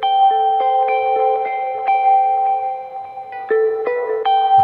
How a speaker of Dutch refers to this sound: Ik zal hem ietsjes harder zetten en dan doe ik alleen het muziekje voor jullie.